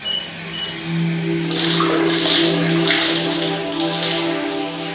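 Ice-cold shower water sprays steadily over a man's head, a continuous hiss with splashing bursts that swell midway, over a faint low hum. No one speaks.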